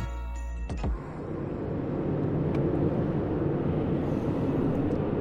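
car driving

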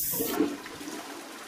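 toilet flushing

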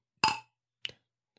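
glasses clinking

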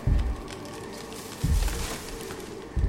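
rustling

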